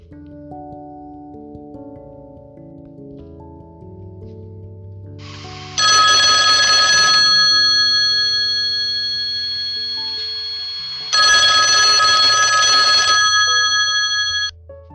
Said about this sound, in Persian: که تلفن زنگ خورد